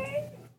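A dog yawning: a brief, squeaky, whine-like tone that trails off and fades within a second, fairly quiet and on its own.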